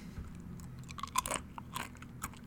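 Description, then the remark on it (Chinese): Someone chews a thin, crispy thyme chicken jerky pet treat, made thin and crisp so that cats can eat it, giving a run of quick, bright crunches with a few louder snaps in the middle, over a low steady background hum and no talking. “对，这这款就这款就是可以给猫猫吃、猫咪吃的， 就是因为它薄的关系， 对，让它做的比较薄脆一点。”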